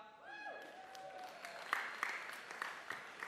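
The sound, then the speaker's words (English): A voice trails off at the start, then millennials in a church audience break into brief, scattered applause: a modest patter of claps that stays fairly light and thin rather than building into a big ovation. “Yeah, millennials, you can clap.”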